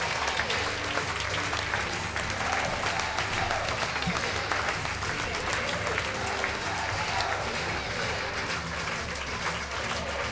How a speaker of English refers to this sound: Packers are saluting the fans right now, and the fans are giving them a well deserved standing ovation. Really a great thing to see after such a successful season here for the Prune Packers.